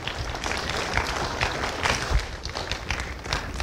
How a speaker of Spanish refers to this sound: Gracias. Un aplauso para ellos. Gracias.